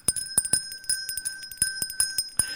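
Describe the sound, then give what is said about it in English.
A hand bell rings steadily at a little red charity bucket, its bright, high sustained tone punctuated by a rapid, slightly uneven series of clapper strikes, about a dozen in under three seconds, with no voices. “I think they ought to put cameras, like GoPros, off of the little red bucket and see people's reactions when they get close enough to hear this.”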